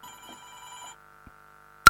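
A telephone rings for an incoming call for about a second with a steady electronic tone, then a brief quiet, a small click, and a sharp loud burst at the end; no one speaks.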